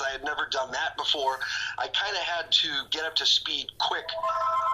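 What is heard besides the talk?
phone ringing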